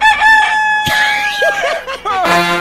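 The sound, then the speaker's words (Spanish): A rooster, one of El Chapo's fighting cocks, crows loudly, its long strained call followed by shorter overlapping crows and clucks, as though several birds are calling at once. “Mira, trae una pelea. Los gallos del Chapo.”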